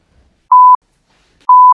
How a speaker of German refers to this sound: Piepsen.